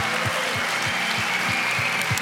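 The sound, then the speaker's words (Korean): At the close of a church gathering, an audience applauds to give glory to the Lord in a dense, steady wash of clapping that holds the same level throughout, with a regular low thump pulsing underneath about three times a second. “이번 집회에 누구보다 도 수고한 우리 주님께 영광의 박수를 마치겠습니다.”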